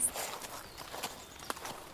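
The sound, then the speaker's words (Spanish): A horse's hooves clip-clop at an unhurried walking pace, a handful of soft, hollow knocks spaced unevenly over a faint background hiss, fairly quiet. “¿No quieres dar una vuelta en mi caballo?”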